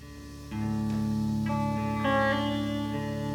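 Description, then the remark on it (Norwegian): A rock song plays, with sustained, reverb-heavy organ-like chords that swell in after a brief moment and shift through a few changes at a steady, fairly loud level. “av en eller annen grunn så har de hatt behov for å spille …”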